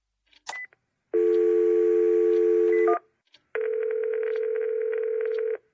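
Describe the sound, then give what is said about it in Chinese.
A school principal picks up the telephone handset on his desk with a click, then a steady, loud dial tone hums for about two seconds, breaks briefly, and a second continuous tone follows for another two seconds. No one speaks. “校长拿起桌上的电话，”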